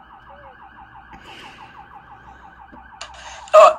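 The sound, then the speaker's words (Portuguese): A fire truck siren wails as the truck passes right alongside, a fast, repeating warble at a steady mid-high pitch, then a louder burst of horn-like blaring near the end. “É um carro do bombeiro que tá passando aqui do lado.”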